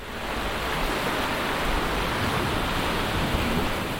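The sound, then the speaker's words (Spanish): A steady, dense roar of ocean surf breaking against the breakwater and the Paseo Nuevo promenade in San Sebastián, beside the old town across the Kursaal bridge, at an autumn sunset; loud and continuous throughout with no distinct pauses between waves and no voices. “Las olas rompen contra el espigón y el paseo nuevo.”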